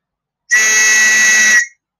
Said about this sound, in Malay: Ha, apa itu whistle? Ha, uh, whistle ni satu alat dia dia mengeluarkan bunyi. Uh, dia mengeluarkan bunyi. Ha, contoh macam ni lah.